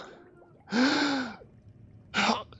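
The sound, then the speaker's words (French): Someone gasps sharply for air after nearly drowning, regaining breath and spitting up water: one loud, long, raspy, voiced intake followed by a shorter second gasp after a brief pause, with no talking. “tu reprends ta respiration et tu craches de l'eau.”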